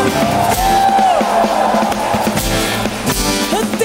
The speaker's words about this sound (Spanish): Y las percusiones. Y la batería y un grito de júbilo